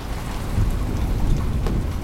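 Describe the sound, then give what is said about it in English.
Steady rain pours down in a dense, continuous hiss with a deep rumbling undertone, fairly loud, with no voices over it. “The rain on my window makes me want to grab covers and curl up and go back to sleep.”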